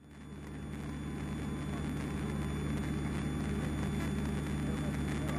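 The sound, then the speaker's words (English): A steady, loud engine drone fills a small airplane cockpit during the go part of a touch-and-go landing, with a deep propeller hum and a constant whirring rush that holds evenly throughout, unbroken. “You'll notice that on the go part of my touch and go, I make a startled sort of noise as a bird almost decided to end its life on my windshield.”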